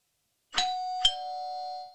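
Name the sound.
doorbell ringing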